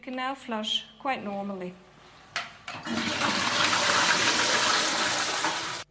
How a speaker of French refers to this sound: Dès qu'un utilisateur s'assoit, une valve s'ouvre et l'urine est drainée dans un réservoir de stockage qui se trouve dans la cave de l'immeuble. Quand il se lève, la valve se referme et on peut tirer la chasse d'eau normalement.